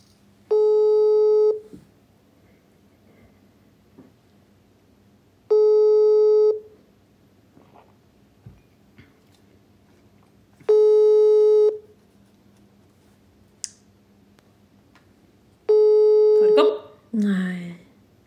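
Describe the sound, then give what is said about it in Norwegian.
A phone ringback tone plays through a speakerphone during a call from a hidden number to a mother on a Saturday evening at half past seven, four steady one-second tones spaced about five seconds apart with no answer, over quiet background noise; a voice briefly speaks at the very end. “Jeg ringer. Og så altså, høyttaler.”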